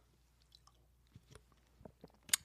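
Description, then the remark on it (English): Someone sips water: quiet wet slurps and swallows, ending in a sharp little mouth click, with no talking. “That is delicious water.”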